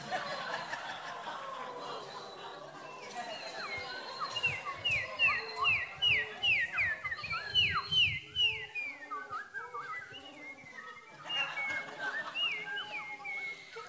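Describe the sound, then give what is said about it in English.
A crowd of people whistles and chirps in imitation of birdsong, a busy overlapping flurry of short rising and falling calls that swells in the middle, mixed with scattered laughter. “Would you make some of those bird noise sounds for us?”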